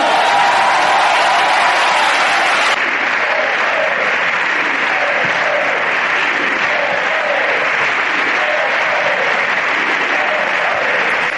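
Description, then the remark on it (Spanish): Loud, sustained applause fills a parliament chamber after confidence is granted to candidate Pedro Sánchez as president, with a crowd of voices rhythmically chanting "sí se puede" through the clapping. The roar stays dense for the whole stretch without easing off. “Ellos están diciendo que como no salen las cuentas, no quieren escuchar otra vez estos gritos de si se puede”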